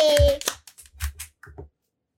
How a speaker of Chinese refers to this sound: 故事开门， 掌声鼓励鼓励。